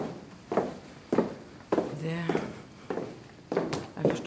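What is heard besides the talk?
footsteps of people walking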